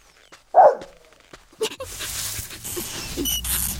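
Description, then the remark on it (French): A single sharp dog bark rings out, followed by a few fainter yips and then a steady rustling, scratching noise of an animal scratching at the earth that fills the rest of the moment. “Il ramène son chien maintenant.”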